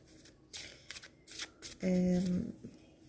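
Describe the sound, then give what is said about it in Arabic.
Cards are shuffled in several quick, papery riffling bursts, followed by a short steady tone near the end; the cards are shuffled to draw a luck card for an astrology reading. “آه، خليني اشوف كارت الحظ بالنسبة لك بيقول ايه”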